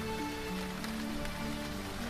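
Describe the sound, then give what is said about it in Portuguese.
Steady rain falls in a continuous, even patter, with occasional brighter drop impacts standing out against the dense wash of sound. No one speaks. “apenas me deixe, gosto de do toque da chuva, sentir a malemolência da água.”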